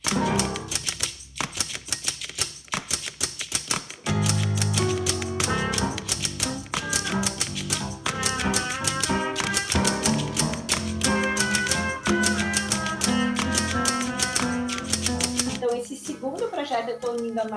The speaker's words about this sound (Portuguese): máquina de escrever com o som da cidade, que tá ficando muito legal também.